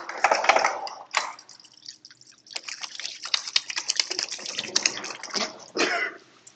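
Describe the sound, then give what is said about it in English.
Hands being washed under a running tap: bursts of splashing and sloshing water with small drips, rising and falling over several seconds, no talking. “I'm washing my hands because I'm not dirty.”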